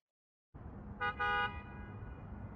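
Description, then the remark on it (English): Two quick car horn honks, a short beep then a slightly longer one, during a test of autonomous cars, over a steady low rumble of traffic and engine noise. “That is a honk of a car horn.”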